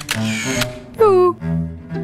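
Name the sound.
camera shutter click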